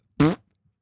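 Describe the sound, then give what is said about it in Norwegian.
A single short, loud fart, a brief buzzy blast of about a fifth of a second followed by silence, with no talking. “Folk dør på andre siden av kloden, og du bryr deg om at jeg promper.”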